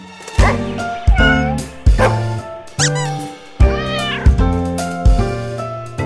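A cat meows over and over, about seven or eight loud calls in a steady rhythm with short pauses between them, and no one speaking.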